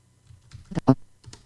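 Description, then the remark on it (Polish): A handful of sharp keyboard keystrokes typing a short email message, tapped at an uneven pace, a couple of them louder and heavier, with brief quiet gaps between them and no voices. “Mamy test i teraz chcę wpisać jakąś wiadomość, więc znowu sobie klikam.”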